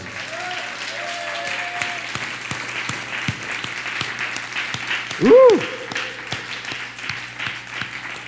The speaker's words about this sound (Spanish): Les saludamos con un fuerte aplauso. No, hermanos, pero que se escuche verdaderamente el aplauso.